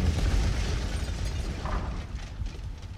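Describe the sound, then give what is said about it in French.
Heavy, continuous rumbling crashes of large stone blocks falling during a demolition by huge cranes nibbling away a slab, deep and booming, with dense low-end roar and scattered impacts; the ground vibrates. No voices. “C'était des explosions de pierres qui tombent.”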